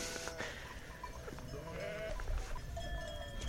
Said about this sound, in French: Alors tous les moutons sont en train de rentrer dans leur enclos avec un travail de précision des chiens absolument incroyable.